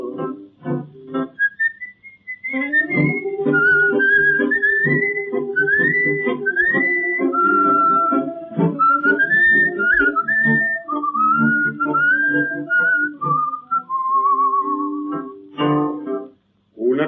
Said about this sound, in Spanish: y un reo meditabundo va silbando esta canción